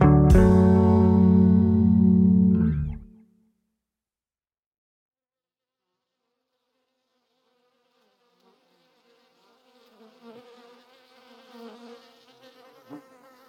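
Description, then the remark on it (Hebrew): A loud, sustained droning tone opens and cuts off, then after a pause the dense, wavering hum of many bees buzzing in a hive gradually rises, moderately quiet and continuous. “כל דבורה בכוורת יודעת בול את התפקיד שלה.”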